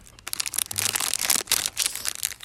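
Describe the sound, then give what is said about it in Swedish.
Crinkly plastic packaging of an ice cream bar being torn and opened, with a run of loud, bright rustling and crackling bursts that rise and fall irregularly, no talking. “Um, jag tycker vi gör så här att vi öppnar glassen och så ser vi Skål vad som finns här inne.”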